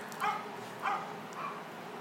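A dog barks three times at a steady pace, the short yips sounding somewhat distant over a faint background hiss.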